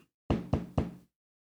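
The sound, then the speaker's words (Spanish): A woman arriving for an appointment knocks on a man's door: three firm knocks in quick, even succession, solid, with a brief resonant thud on each hit, then silence. “No le dio tiempo de llamar a Lorena para cancelar su cita, y ésta tocó a su puerta.”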